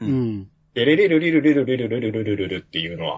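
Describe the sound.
A voice sings a fast, repeating melodic run of quick syllables, mimicking a programmed piano riff in a steady rhythm for about two seconds, clear, with a short spoken word before and after.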